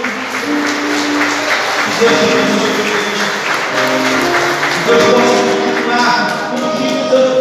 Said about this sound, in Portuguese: Uma salva de palmas para o Senhor Jesus